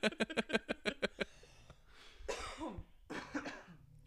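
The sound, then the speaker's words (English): Two people coughing: a rapid burst of about eight sharp coughs in a tight rhythm, followed by a couple of heavier, raspier coughs with throat clearing, fairly loud with no talking. “As both of us just start coughing, like that's fine.”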